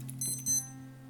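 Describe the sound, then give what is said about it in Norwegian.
A clock rings near midnight with bright, high-pitched tones in two or three quick bursts, fairly soft, over a steady low hum, with no voices. “går mot midnatt, så da ringer klokka.”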